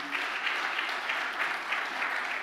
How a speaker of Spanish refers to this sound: el otro aplauso fuerte al Señor.